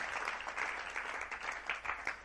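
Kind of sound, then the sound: crowd, audience applause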